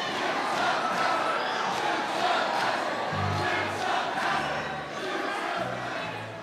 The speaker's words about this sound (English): a big crowd of people yell Dukes of Hazzard